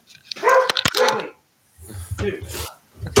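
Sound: dogs barking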